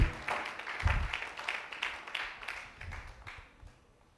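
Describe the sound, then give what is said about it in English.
An audience claps together in a steady rhythm, the sharp hand claps fairly even and moderately loud before gradually fading out toward the end. “I didn't ask you to clap, but for the first time this morning, if you feel like clapping, do it as if you are in bond with Christ.”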